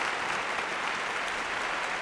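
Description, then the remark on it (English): Soft, polite golf clap: a steady patter of many hands clapping at an even level for about two seconds, with no voices over it. “Golf clap.”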